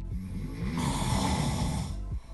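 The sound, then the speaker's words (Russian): A voice imitates the speaker's own loud nightly snoring: one long, rough, rattling snore, with a harsh hissing roar that holds steady for about a second and a half before fading out. “И когда я говорю, что я храплю, я не могу словом «храп» передать тот звук, который я обычно издаю по ночам, поскольку мне его пару раз включали, записанные на телефон, мы разные.”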